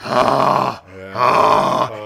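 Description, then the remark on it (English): A man loudly imitates a fart with his voice, two long, buzzy, groaning blasts separated by a short pause. “Whenever he farted, it would sound like this.”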